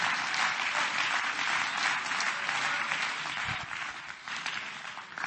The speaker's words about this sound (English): Come on, clap your hands to the Lord and give him some praise right now.